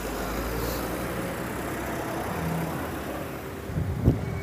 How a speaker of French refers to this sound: je m'excuse s'il y a un peu de bruit ici. Il y a la route.